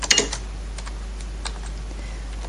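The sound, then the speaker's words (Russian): Several quick computer keyboard key presses, pressing Insert and Space to switch into editing mode, clicking crisply, with a brighter cluster at the start and a few scattered taps after, over a low steady hum. “Э, вот нажатие insert пробела перехода в режим редактирования – это как бы любимая клавиатурная команда получается.”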